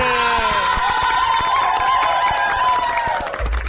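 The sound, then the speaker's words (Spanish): A crowd cheers and claps for the announcement of a website, with loud sustained whoops and shouts ringing over steady scattered clapping for a few seconds before it cuts off. “Ay, no jodas, sí ya me acordé, así que un aplauso para la página web”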